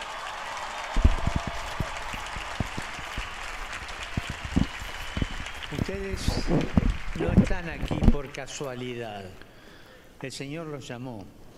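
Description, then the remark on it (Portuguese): A large crowd applauds with a dense wash of clapping and cheering noise that rises after a second and fades, then a man begins speaking over the dying applause. “Agradecemos-lhe com outro forte aplauso.”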